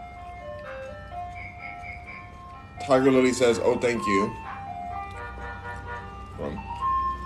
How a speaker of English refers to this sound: Happy Tuesday from the ice cream truck, man. Coming here ruining every one of my videos I ever do with his poisonous songs, looking around trying to hunt the kids and give them diabetes.